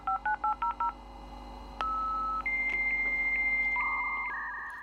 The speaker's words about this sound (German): immer mehr Leute bekommen zu Hause einen Internetanschluss. Man wählt sich per Modem ein.